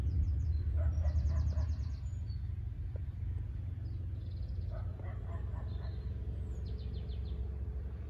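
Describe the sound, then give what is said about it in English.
Birds tweet in short, repeated trills every few seconds over a steady low rumble of traffic. No one speaks. “Notice the birds tweeting, dogs barking, lawn mowers mowing whatever it is, just invite the sounds in.”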